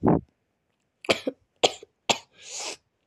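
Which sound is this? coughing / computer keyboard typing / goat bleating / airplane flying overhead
coughing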